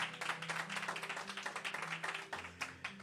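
A church audience claps together as a loud applause of faith to the Lord, a dense, steady burst of many overlapping hand claps, rapid and fairly loud throughout, with a low sustained musical tone underneath.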